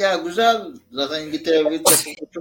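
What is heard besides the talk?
sneeze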